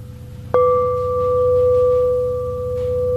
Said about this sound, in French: Le sens, une cloche sonne, c'est pas euh, une porte qui euh, grince, c'est comme immédiat, ça c'est pas une pensée comme telle, mais c'est ce qu'on appelle une perception, une reconnaissance.